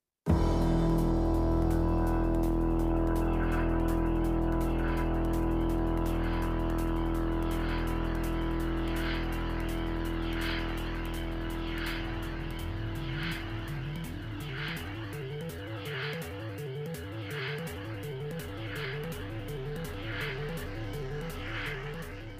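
A rapid, steady hi-hat ticks without pause over a pulsing electronic synth sequence and a deep droning hum, driving the instrumental electronic rock track forward with no voices.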